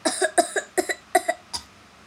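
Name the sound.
coughing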